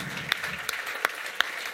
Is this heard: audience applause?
yes